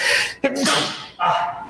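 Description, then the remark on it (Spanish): A loud, allergy-caused sneeze with a sharp explosive burst, surrounded by harsh breathy exhalations and a snuffly follow-up, with no clear words spoken. “Salud.”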